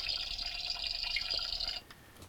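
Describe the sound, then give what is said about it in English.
The boiling sound effect of a toy stove in an American Girl kitchen set plays: a steady, hissy bubbling of water for nearly two seconds, clear, then cutting off abruptly into near quiet. “It's on the stove? Yeah. Like something's boiling?”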